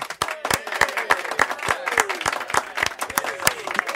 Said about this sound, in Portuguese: E apesar da ausência da aniversariante, é um dia especial aqui na Renascença, portanto, palmas para a Filipe. Palmas para a Filipa.